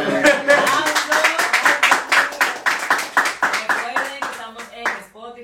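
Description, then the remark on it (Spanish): Brisk, steady hand clapping from a small group at the end of a live show, about four claps a second for several seconds, loud and sharp, with voices chattering and talking underneath. “Démonos un aplauso.”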